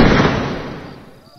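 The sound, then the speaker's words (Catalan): A single sharp shotgun shot fired at short range bursts out at full loudness, then its heavy boom rumbles and fades away over about a second, with nothing else following. “No trigueu a tenir-me tret d'escopeta, i no hi ha d'amor a escoltar-se la fressa sorda i seca d'un tir a curta distància.”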